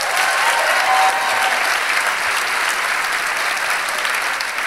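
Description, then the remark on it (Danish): A crowd claps steadily and loudly for several seconds to show they have seen the film Disco-ormene that evening, a dense, even wash of many hands with no pauses and no talking over it. “Klap, hvis I har set disco-ormene her til aften.”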